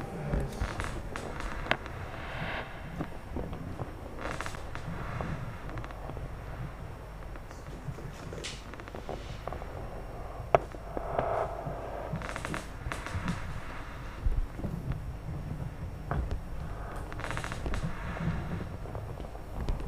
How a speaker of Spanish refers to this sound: Suenan, hay como unos crujidos, ¿no? Sí, sí, es la, la mesa que cruje con los patacones.